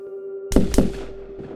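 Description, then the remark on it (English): Two loud rifle shots ring out in quick succession, each a sharp crack with a short echoing tail, over a faint steady hum. No voices are heard. “He fired a couple of more times.”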